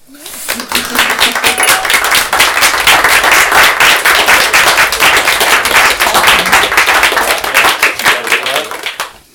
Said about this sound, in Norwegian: En liten applaus til deg.